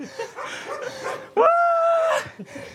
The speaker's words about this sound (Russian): Собака орет соседняя.